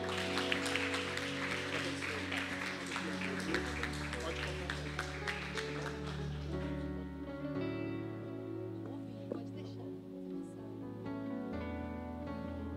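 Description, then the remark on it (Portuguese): An audience bursts into sustained applause for the Lord, a dense wash of clapping over steady organ or keyboard chords, the clapping thinning out in the final seconds as the music carries on. “Dá um melhor aplauso ao Senhor.”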